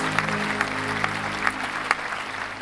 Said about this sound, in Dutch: Ja, een hard applaus voor